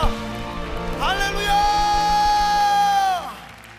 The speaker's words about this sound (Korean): 우리가 할수 있는 최고의 영광과 감사의 박수를 올려드립시다.